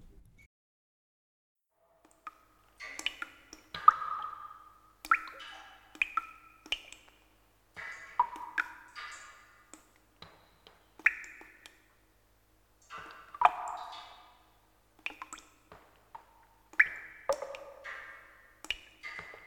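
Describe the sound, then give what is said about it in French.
Scattered raindrops plink and drip at an irregular pace, each drop a short bright blip, some landing in quick clusters and others spaced apart, clear against otherwise quiet surroundings. “Donc euh, on peut prendre euh, un, premier exemple, vous prenez euh, le son de goutte de pluie.”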